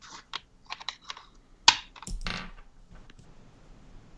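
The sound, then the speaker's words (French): Dice rattle in a series of quick clicks as they are shaken, then one sharp knock and a short clattering tumble across a hard surface, with no talking. “Brasse mes dés.”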